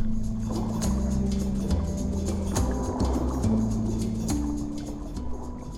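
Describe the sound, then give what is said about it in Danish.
A boat glides through the water of flooded town streets during the 1921 storm flood in Randers, Denmark, with steady sloshing and lapping, overlaid by low, sustained droning tones that shift in pitch; continuous, with no one speaking. “Fra båden kigger du rundt i gaderne. Hele byen står under vand.”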